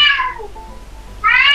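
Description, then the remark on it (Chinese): A pet cat named Guigui (鬼鬼) meows twice, loud and high-pitched with a bright, tonal quality. The first meow slides downward in pitch, followed by a short quiet gap before a second meow cuts in at the end. “来，我们欢迎这个突突然出现的嘉宾，你们家猫叫什么名字？”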